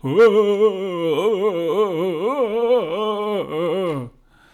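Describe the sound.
A person vocally imitates a film character's strange, insect-like scream: one sustained, nasal, wavering cry lasting about four seconds, fairly loud, with no other talking.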